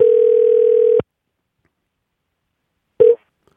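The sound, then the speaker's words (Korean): A steady, mid-pitched telephone tone drones loudly for about a second as a radio show places a call to a listener, then cuts off; after a silent pause a second short tone burst sounds, with no talking. “9336님 전화 한번 걸어봅니다.”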